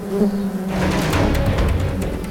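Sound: buzzing swarm of bees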